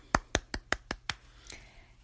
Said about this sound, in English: did a great job reading Ladybug Girl, so let's give her a round of applause.